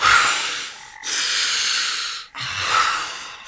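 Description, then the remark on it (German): A man who nearly suffocated gasps for breath in three heavy, ragged pulls of air, each about a second long and loud, with brief pauses between and no talking. “Er wäre beinahe erstickt. Gott. Atmen, atmen”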